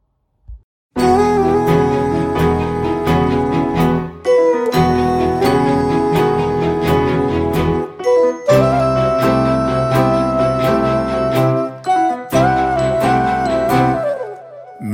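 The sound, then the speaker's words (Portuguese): A recorded song starts after a brief silence and plays loudly: a full band with a steady beat and bright, layered melodic instruments, sounding like an instrumental intro without singing. “mas agora vamos escutar …. … do …”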